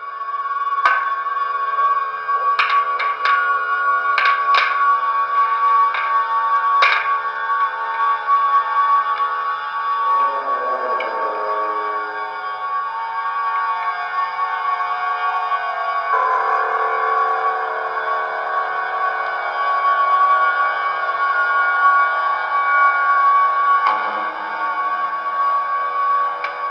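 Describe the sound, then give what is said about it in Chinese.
An experimental film score, a modern ambient noise squeal, recorded off a phone with poor sound quality: a continuous, steady drone of whining, screeching tones with a few sharp clicks near the start and shifting layers midway. No talking, with a thin, slightly tinny quality. “就是你现在听到的那个 BGM，我用手机录了一下啊，音色不太好，但是应该你能听到一个大概。”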